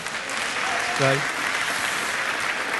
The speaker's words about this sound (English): Amen. Give yourselves a big clap.